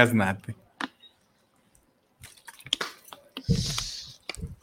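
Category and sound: food or drink, drinking water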